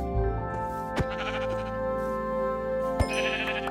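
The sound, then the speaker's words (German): Sheep bleating in a video game as the player kills a sheep for a bed: a few wavering calls over steady game music, with two sharp clicks or hits punctuating the sound; no one speaks. “Ja, obwohl, dann kill ich nochmal das eine Schaf für das Bett.”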